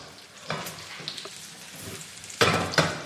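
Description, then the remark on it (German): Small patties formed from oat flakes frying gently in a pan in butter with some added olive oil, a steady soft sizzle and crackle with a few louder spits and pops, without any talking. “ich habe so das lecker Gefühl, dass wir die jetzt so sanft anbraten.”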